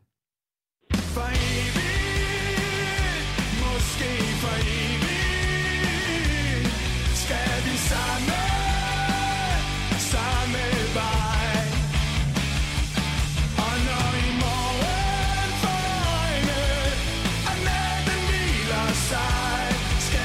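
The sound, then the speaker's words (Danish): After a split second of silence, a loud rock chorus kicks in with full band and sung vocals, playing continuously and energetically at steady volume to the end. A handball DJ plays the song's chorus directly, skipping the intro. The song became a Danish national handball anthem at the 2019 World Championship. “så starter jo ikke med nummerets intro, men vi går lige på det legendariske omkvæd.”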